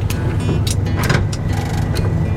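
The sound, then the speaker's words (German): A car without fuel injection idles with a steady low rumble, while a few brief mechanical clunks and clicks come through as the car is shifted into gear. No one speaks. “So, Gang noch rein.”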